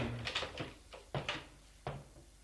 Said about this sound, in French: Il sort de la chambre. Ouvre des portes pour trouver la cuisine